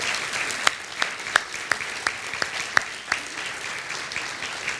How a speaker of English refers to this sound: I'd actually like for any of our children and students to stand up as well. And adults, I'd like for you to clap for them.